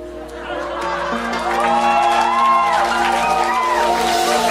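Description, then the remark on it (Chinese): A crowd applauds steadily and loudly, mixed with cheering and a few rising whoops and shouts that swell toward the middle and carry on for several seconds. “等等一下，等一下，你们拍手一定觉得我在讲我自己，对不对？”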